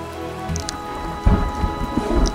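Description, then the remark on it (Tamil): Steady rain patters down in a dense, continuous hiss, with a deep rumble swelling about halfway through, like thunder. No voices. “என்றைக்கும் இந்த மழை மாதிரி நம்ம கூலாகவே இருப்போமே”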